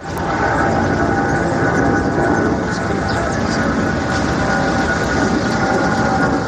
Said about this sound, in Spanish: Pues sí, estamos muy cerquita de estas viviendas y para que nos hagamos una idea, Fíjate el sonido que hace porque lo hemos podido grabar. Imagínate el sonido que hace aquí pegadito a las ventanas los aviones cuando pasan.